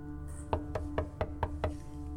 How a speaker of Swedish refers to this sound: Eh, och tar sen eh, beslutet att gå över korridoren och knacka försiktigt på Elfrides dörr.